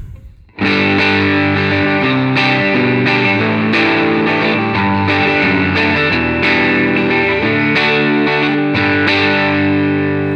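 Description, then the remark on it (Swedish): An electric guitar on the neck pickup plays sustained, compressed chords with a thick, warm tone and even loudness, struck roughly once a second with no voices. “Här hade jag önskat att det fanns en separat volym till halsmicken”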